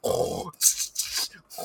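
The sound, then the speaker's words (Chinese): A voice imitates heavy snoring mixed with teeth grinding, likened to a big truck: a rough, low, rattling grunt followed by a few harsh, hissing breathy bursts, loud and uneven in rhythm. “我又跟我跟的那一群男生里面有一个干他妈爆会打呼，他打呼跟磨牙一起来，干他妈真的不知道他是在睡觉还是在模仿大货车的声音”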